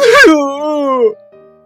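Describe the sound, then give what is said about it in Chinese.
A voice acts out a little hippo's big sneeze in a children's story: a sharp, breathy burst followed by a long, wavering, drawn-out vowel that slowly falls in pitch and trails off, with a faint tone lingering after. “半路上，他忍不住又打了一个大喷嚏。”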